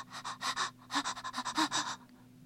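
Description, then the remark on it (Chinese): Quick, breathy panting: about a dozen short gasping breaths in a fast, slightly uneven rhythm, fairly loud, with a faint voiced edge and a brief pause partway through, then stopping; a fish gasping for breath, unable to move, after leaping out of the pond onto warm dry grass. “喘不过气儿来。他不能呼吸，也不能动弹。”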